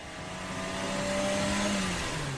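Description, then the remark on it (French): A car engine revs and accelerates as a man gets back into his car and drives off, its steady motor hum climbing slightly in pitch over a couple of seconds, with no voices. “Il prend la fuite, remonte dans sa voiture et démarre.”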